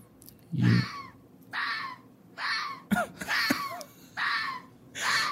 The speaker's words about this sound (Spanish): pero un zorro en su estado natural, no cuando lo están violando. no sé, eso decía y luego aquí que hay otro. Sí suena como que se lo están cochando, ¿ah?